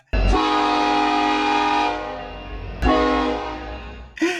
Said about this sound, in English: About two hours later, fucking we realize we're about three feet away from a, a train, a working train. that apparently needs to blow its blow its like its horns because there's an intersection right by.